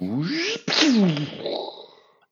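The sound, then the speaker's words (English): In a film scene, a new starship leaps to warp speed: two quick rising, warbling surges of tone burst out loudly, then a bright shimmering whoosh trails off and fades within a couple of seconds. “And uh, this minute starts with Kirk and crew approaching the Excelsior and ends with a new starship zipping off into warp speed.”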